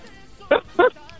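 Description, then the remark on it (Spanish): A child's voice imitates a dog with two short, loud barks in quick succession, with faint background murmur around them. “Oye, ¿tú me puedes hacer el ruido de un perrito?”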